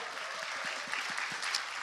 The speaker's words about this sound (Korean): 자, 우리 이 세 분들께 세 기업에 여러분 감사의 박수 한번 좀 부탁드리겠습니다.